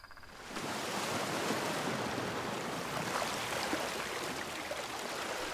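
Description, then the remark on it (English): A sudden roar of rushing water, the surging waves of the Red Sea parting, bursts in after a brief quieter moment and holds loud and steady throughout, with no voices. “And the Red Sea parting?”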